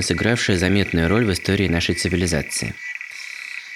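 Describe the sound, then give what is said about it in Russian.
African clawed frog calls form a steady, buzzing metallic trill beneath a person's narration, then carry on softly by themselves for a moment after the talking stops. “Вы слышите звуки, которые издают животное,”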